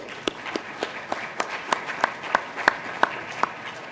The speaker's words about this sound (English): Please join me in giving all five teams another round of applause.